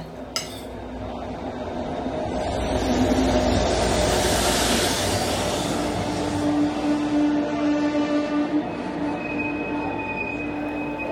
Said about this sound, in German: Ein Jahr nach diesen Interviews setze ich mich in den Zug und fahre nach Köln.